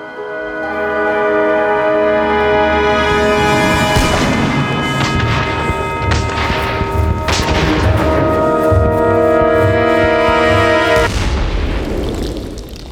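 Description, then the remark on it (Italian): Heavy cannon booms ring out about three times at spaced intervals, each a loud low blast over a steady, sustained musical drone that continues throughout, as cannon fire toward the walls of Paris. “Il primo colpo di cannone esplode verso le mura di Parigi.”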